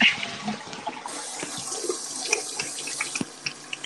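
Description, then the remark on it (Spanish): Steady running water splashes continuously for a few seconds, a broad hissing trickle with small irregular spatters, moderately loud, from someone urinating. “¿Quién está meando? Se escucha agua, escucha agua.”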